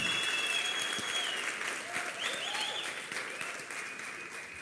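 An audience applauding the Lord loudly, a dense, continuous wash of clapping from a large crowd that holds steady for several seconds with some faint tonal sounds underneath.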